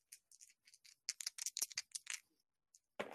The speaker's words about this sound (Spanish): y voy a lanzar jugando. Mis dados normales. Los dados del sneak.